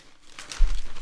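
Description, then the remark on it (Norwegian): Soft rustling of newspaper pages, a brief crinkly burst of paper handling followed by a low thump and quieter shuffling, with no voices. “Hører denne bleinga. Ja, Se på denne saken her.”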